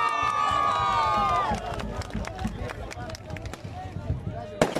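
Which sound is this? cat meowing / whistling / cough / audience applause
audience applause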